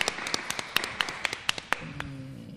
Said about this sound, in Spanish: Qué maravilla. Un aplauso de todos los que estamos aquí en el trato de Fares.